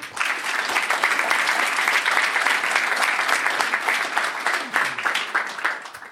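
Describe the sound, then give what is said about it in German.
Sustained audience applause for Ingo after an interview, a dense, steady wash of many hands clapping at once that holds at an even, fairly loud level for several seconds before thinning slightly at the end. “Danke Vielleicht nochmal einen Applaus für den Ingo.”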